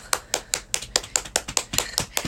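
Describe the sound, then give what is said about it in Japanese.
A quick run of about eleven crisp hand claps at a steady, even pace, clear with no voices, like a short applause sound effect. “あ、拍手が増えた。”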